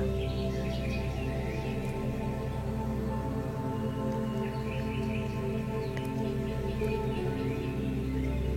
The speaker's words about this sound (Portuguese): Um local lindo. Você escuta os passarinhos cantando. no verde da floresta.